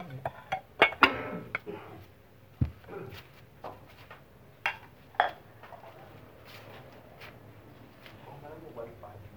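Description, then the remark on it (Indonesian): Plates clinking and clattering in a series of sharp, irregular knocks, with a low background hum and some quiet movement between the hits. “Nah, piring.”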